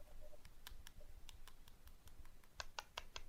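Quick, sharp taps of fingers on a plastic phone case, a dozen or so clicks in an uneven rhythm that speeds into a rapid cluster near the end, with no talking.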